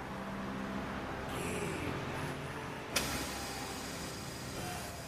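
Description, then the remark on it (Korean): A bus, the last bus of the day, rumbles as it pulls up, with a sharp hiss of air brakes midway and a steady low engine drone throughout. “버스 오네요.”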